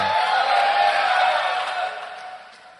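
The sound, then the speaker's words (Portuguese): A church audience erupts in a loud, unified victory shout, a dense roar of many voices mixed with whoops that holds steady for about two seconds before trailing off. “Dá um grito de vitória, igreja.”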